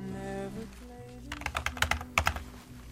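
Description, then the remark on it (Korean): Quick bursts of keystrokes on a computer keyboard during an internet chat, clicking in irregular clusters, over a low sustained musical hum that fades as the typing starts. “군 제대 후 무료하던 그때 저는 인터넷 채팅으로 그녀를 알게 됐습니다.”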